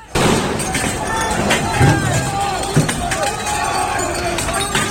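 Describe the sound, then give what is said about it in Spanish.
A chaotic street brawl between German and English football fans in Seville: a crowd of voices shouting over each other, with scattered thuds and clatters, loud and continuous throughout. “Este es el sonido de ese enfrentamiento tan brutal.”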